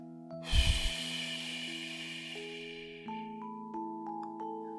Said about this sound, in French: On va inspirer à 3 par le nez, ensuite on bloque la respiration et on souffle par la bouche. 1, 2, 3. on bloque.